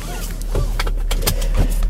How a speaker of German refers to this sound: Also gut, zum Starten brauche ich weder Kurbel noch Schlüssel. Ich drücke einfach auf den Startknopf.